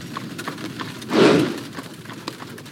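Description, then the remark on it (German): Horse hooves clip-clop in a steady, even rhythm, pulling the mail coach Beethoven boards very early in the morning at the start of an 800-kilometre journey, with a brief rushing, rumbling swell rising and fading in the middle. No one speaks. “Als Beethoven in aller Herrgottsfrüh in die Postkutsche steigt, liegen 800 Kilometer vor ihm.”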